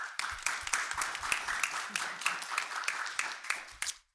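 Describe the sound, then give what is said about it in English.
An audience applauds a panel of Air Force engineering experts, clapping steadily for about four seconds. A dense wash of many hands is heard with a few louder individual claps standing out, then the applause cuts off abruptly. “So before I move forward, please can we give our panel a round of applause?”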